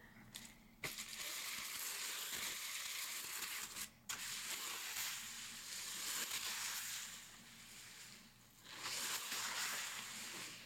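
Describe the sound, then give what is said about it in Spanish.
A foley sea wave made with objects: a steady rushing hiss that swells and recedes, broken by a couple of brief pauses, with a final surge near the end and no voices. “Y es una ola de mar.”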